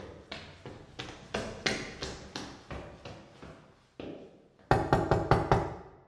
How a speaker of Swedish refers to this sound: De bägge ambulansmännen knackade på dörren till lägenheten en trappa upp på Nytorget 45 på Södermalm.